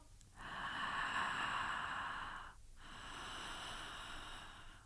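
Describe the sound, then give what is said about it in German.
Continuous breathwork breathing in and out through the mouth without pauses, a long airy inhale flowing straight into an exhale with barely a break, steady, no speech. “Also wie beim Breathwork kannst du anfangen, durch den Mund ein- und auszuatmen und dabei keine Pause zu machen.”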